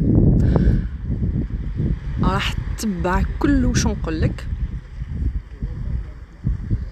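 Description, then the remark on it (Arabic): Ocean waves wash steadily in the background, a constant low roar beneath a person speaking during a relaxation session, with a few brief high-pitched calls rising over the surf midway through. “هاد الجلسه على الاسترخاء من فضلك كما متعودين انعزل في مكان هادئ وين ما يكونش مرور كتير جنبك تركز خاصة على صوتي وعلى صوت الموج اللي كاين في الخلفية”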